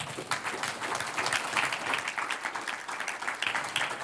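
A church audience applauds the Lord steadily, a dense, continuous patter of many hands clapping at an even, sustained loudness for several seconds, with no talking over it.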